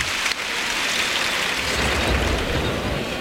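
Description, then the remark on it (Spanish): A bullring crowd gives a sustained ovation for two banderilleros as they salute after their banderillas, a dense, steady roar of clapping that holds at an even, fairly loud level throughout, with no one speaking. “Pedazo de ovación que se llevan los banderilleros merecidamente.”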